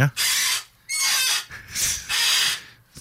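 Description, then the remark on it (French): A chair creaks and squeals in four loud, high-pitched bursts, each about half a second long, with short gaps between them and no one talking. “Je pense que ta chaise crie Aidez-moi.”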